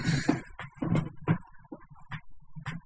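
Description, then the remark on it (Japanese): A chair creaks and groans several times in an irregular series of short rasps as someone re-seats themselves and shifts their weight, with no talking. “割にこう、身の回りに音でも出るものが多いですね。椅子もギシギシ言うし”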